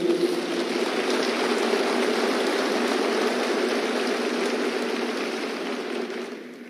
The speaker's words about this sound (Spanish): Gracias a todos los diamantes por abrir el camino y por mostrarnos que es posible ser diamante. Gracias, un fuerte aplauso para todos ellos.